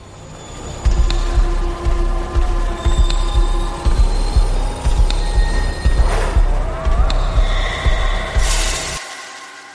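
A metro train rolls by, wheels thudding in a steady rhythm over the rail joints while high metallic squeals and hissing rise above, before the sound cuts off abruptly.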